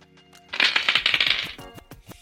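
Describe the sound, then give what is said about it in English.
A quick clatter of dice rolled for a 'roll plus instinct' check, tumbling across a hard surface, a dense burst of small clicks lasting about a second, then a few scattered taps as they settle. Fairly crisp. “I'm not gonna lie, it's a 75, but it's the opposite dice rolled a five, or an actually, only no, it's 75 It's same dice.”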